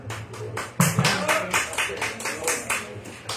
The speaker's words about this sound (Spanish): Y ahora vamos a pasar a otro más. Eh, un fuerte aplauso para mi compañero